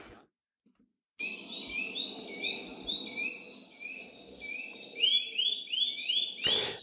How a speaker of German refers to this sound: Und dann kommt als Zuspielband eben auch immer wieder äh, Vogelnaturstimmen. Ähnlich wie die Stimme, die ich dir geschickt habe.